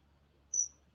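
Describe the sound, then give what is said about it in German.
A single short, high-pitched bird squeak rings out once outside near a terrace, thin and whistle-like, over a quiet low background hum with no talking. “Ach, ein Vogel quietscht, ja.”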